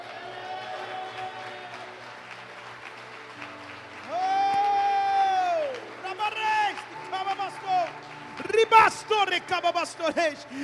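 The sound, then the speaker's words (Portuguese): An audience at a Portuguese-language worship service applauds the Lord and cheers, steady clapping running underneath drawn-out shouts and voices that rise in long sustained tones, then break into shorter excited bursts toward the end. “Dê um glória a Deus e aplauda o Senhor.”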